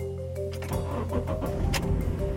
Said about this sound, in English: And the three of them climb into Vrajesh's car, a Honda City.